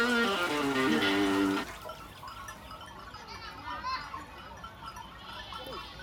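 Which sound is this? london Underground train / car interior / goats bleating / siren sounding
goats bleating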